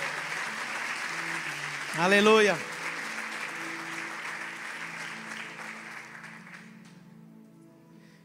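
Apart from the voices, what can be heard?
audience applauding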